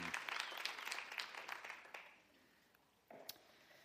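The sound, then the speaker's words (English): A church audience applauds after a song with dense, overlapping claps for about two seconds, then the clapping fades out; a brief murmur of voices follows near the end. “And you can be seated if you stood, and you can applaud if that's where you're at.”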